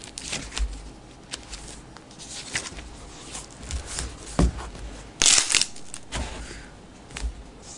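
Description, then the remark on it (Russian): Papery rustling as the stuck-together pages of a book are separated and turned to find a verse in chapter 26 of Isaiah, with scattered soft crackles and one louder, sharper flurry of page movement partway through. No one speaks. “Я буду первый человек, который откроет эту книгу, все страницы срослись.”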